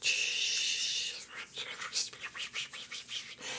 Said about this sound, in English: Let's say we are wandering through the Rocky Mountains, because why not? And all of a sudden, we hear a rustling, whispering sort of